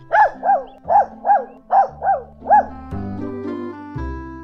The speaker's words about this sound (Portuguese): Mesmo se eu tivesse no espaço, eu seria capaz de escutar o latido desse canino.